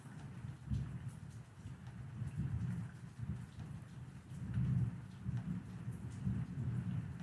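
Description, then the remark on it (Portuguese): Steady rain pours down outside while low, rolling thunder rumbles through the whole stretch, swelling in heavy waves. No voices, just the storm. “Essa tempestade que ecoa tudo que há em mim, transbordando na chuva lá fora e nesse silêncio que não se cala.”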